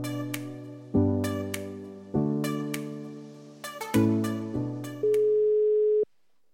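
A phone line rings through a series of electronic chime-like tones, each lasting about a second, then a steady single tone holds before cutting off abruptly. No one speaks.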